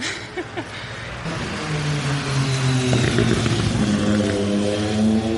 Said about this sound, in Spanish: Esa moto que acaba de pasar puede servirnos de cortinilla